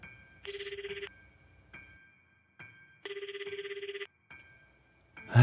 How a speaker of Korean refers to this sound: 1층 계단을 막 다 내려갔을 쯤 또다시 울리는 전화벨.